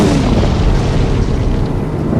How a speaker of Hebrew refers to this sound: ואיתו גם הטראח, כמו מירי תותח כשהארז נשבר וקורס לאדמה.